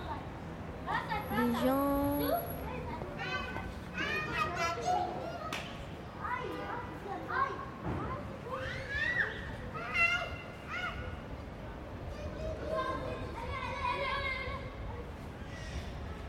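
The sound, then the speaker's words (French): Outdoor ambience in the large courtyard of a small château, with children shouting and chattering, their voices overlapping continuously, plus occasional bird calls over a steady background hum. “qui rentre dans le petit château, qui attend devant, et puis qui passe le sas d'entrée, et puis qui se retrouve dans la cour, la grande cour du petit château.”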